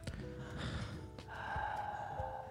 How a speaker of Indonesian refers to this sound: Enggak nafasnya hembusan hidung. Gitu.